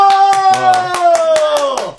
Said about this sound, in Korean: 박수.